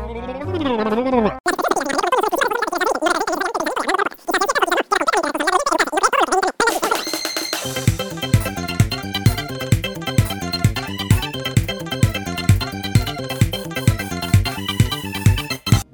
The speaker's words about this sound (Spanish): Así que vamos a empezar el intro. Vamos a poner el intro en super fast forward.